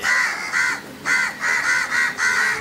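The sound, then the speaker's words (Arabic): Several harsh crow caws ring out in quick succession, loud, a rough repeated cawing with brief gaps between calls and no talking. “مرحبا يا سيد كار كيف اجازاتك الغربان افتقدتك”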